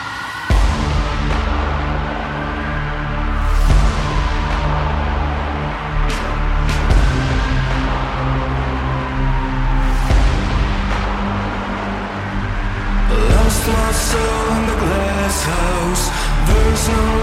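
A loud, dense alternative rock track by a band from Athens, Greece, with distorted guitars, heavy bass and driving drums, building to a brighter, cymbal-heavy section near the end; no vocals yet.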